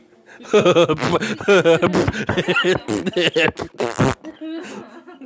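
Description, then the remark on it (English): A person imitates a long, croaking burp from too much air in the esophagus, a run of gurgly voiced pulses ending in a raspy burst, with snickering laughter mixed in. “no, I get too much air in my esophagus and I just go”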